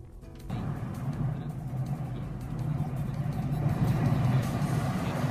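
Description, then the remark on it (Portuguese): Continuous street traffic in Caxias do Sul at dawn, under a cloudy sky with low temperatures, with cars and heavier vehicles like buses rumbling past, a steady low engine drone that swells slightly louder toward the end, with no one speaking. “O Marcos Cardoso hoje está é, conferindo o amanhecer e também o trânsito aqui nas ruas de Caxias do Sul e da região.”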